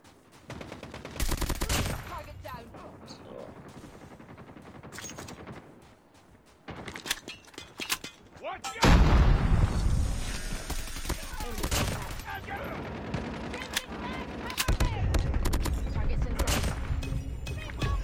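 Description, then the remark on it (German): Rapid bursts of video game gunfire crackle loudly and repeatedly, with dense automatic fire and booming impacts that swell after a brief lull, overlapping continuously for the whole stretch. “Er hört einfach auf zu schießen und ich hatte volles Magazin.”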